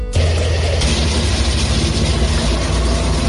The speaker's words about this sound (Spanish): Este es el sonido de los carros de combate en la valla que separa la franja de Gaza del territorio israelí.